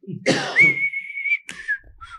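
Someone whistles: a breathy rush slides into one long, steady note, then a quick puff of air and a short, fading whistle trail off. No one speaks.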